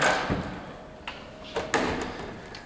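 The nearest door in a theatre is pushed open with a rattling, scraping movement, followed by a few sharp clicks and knocks of the latch and frame, with no talking.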